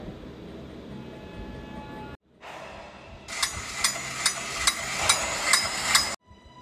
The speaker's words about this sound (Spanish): Christopher apagaba nuevamente la luz y por segunda vez el estridente sonido de estos platillos volvía a escucharse entre la oscuridad.